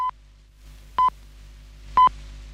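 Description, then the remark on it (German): Three short, clear electronic pips of a radio time signal announcing the time, at even one-second intervals, each a pure steady tone with a faint low hum underneath, the last one slightly longer and louder. “Achtung, die Zeitansage mit dem Gongschlag 7.03 Uhr. Mal als Gong, mal mit Piepton.”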